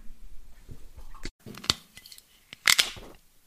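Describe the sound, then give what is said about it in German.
A screw-cap bottle of Silvaner wine from Franken, Germany, being opened: scattered small clicks and taps, then a short, bright burst of crackling metallic clicks as the seal breaks. Nobody speaks. “Wir haben keine Colaflasche geöffnet, gerade und auch keine Sprudelflasche, sondern eine Flasche Silvaner aus Franken.”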